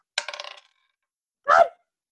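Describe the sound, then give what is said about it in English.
A small six-sided die clatters in a quick series of rattling bounces, then after a brief pause lands again with a single louder tumble. Fairly loud, no voices. “It keeps on falling.”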